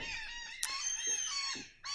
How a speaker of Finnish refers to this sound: Jahas, lokit tulivat pitämään äh, iltaseremonioitaan tänne, tänne laiturille.